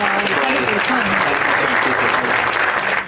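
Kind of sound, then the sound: sound effect, applause sound effect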